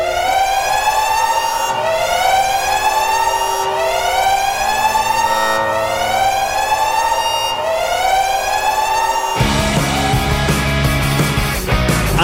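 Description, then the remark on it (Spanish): A loud alarm siren wails in repeated rising sweeps, cycling about every two seconds, then cuts off abruptly near the end into a dense burst of harsh noise. “Atención, atención, claro que sí suenan las alarmas porque es viernes, son las 3 y 7 de la tarde”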